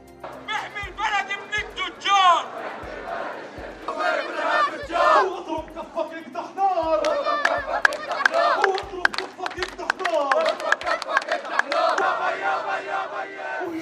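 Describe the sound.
Hundreds of protesters in Amman, Jordan, chant loudly and rhythmically on a Friday against a memorandum of understanding signed by Jordan, Israel and the United Arab Emirates, many voices shouting in unison over steady low drumbeats, with scattered claps and sharp clicks cutting through the din.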